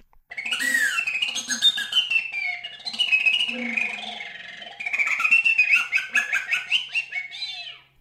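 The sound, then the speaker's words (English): High, thin squeaks and chirps from a recorder with a nearly closed window, wavering and sliding in pitch in bursts of bird-like twittering, played fairly loud with no talking. “and then when you close the labium always uh, almost completely then you get these squeaking sounds”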